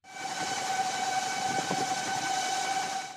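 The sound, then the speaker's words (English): A one-seat solar-powered electric plane, with wings as wide as a jumbo jet, the weight of a car and about 17,000 solar cells along its wingspan, flies by with a steady, even whir, a thin high-pitched motor whine over a soft airy rush, constant throughout with no voices. “The wings are as wide as a jumbo jet, but it can only weigh as much as a car. And it also sounds a little different.”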